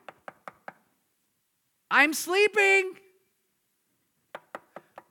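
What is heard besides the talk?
knocking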